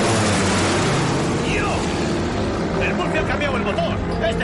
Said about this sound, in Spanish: Todos se detienen a ver la avioneta que sobrevuela al pueblo de cerca.